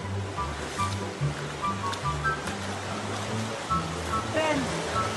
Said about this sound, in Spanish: A tres horas de la ciudad en carro, casi con Coahuila, acá en Arteaga. Miren nada más esto ojos de agua que tenemos por acá.